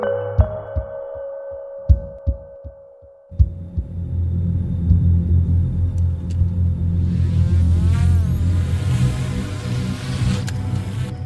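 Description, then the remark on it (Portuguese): A Black Hornet mini spy drone, used by Ukrainian troops, buzzes in flight: rhythmic low throbbing gives way to a steady mechanical hum, with a thin whine that wavers up and down in pitch. No voices. “São uns mini-drones que custam muitos milhares de euros estão a ajudar as tropas ucranianas”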